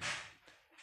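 A single sharp, hissy bang from nearby construction work, bursting out at once and then fading quickly, fairly faint with nobody talking over it.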